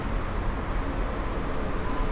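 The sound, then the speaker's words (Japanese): A steady, continuous rumble of road traffic on Kawabata Street, heard from the bank of the Kamo River across the water: a broad low wash of car noise with no distinct passing vehicles and no voices. “対岸に川端通りがあるので結構車の音がうるさいです”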